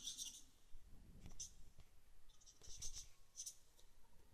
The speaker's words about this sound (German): Ach, da merke ich schon. Da ging der Stift gleich los, als ich das erste gesagt habe.